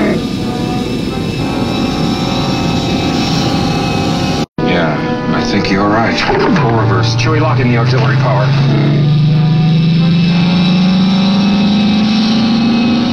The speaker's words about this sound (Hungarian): akkor hallunk egy ilyen egyre magasodó búvó hangot, mintha erőlködne a motor, ami eredetileg nem volt benne ebben a jelenetben.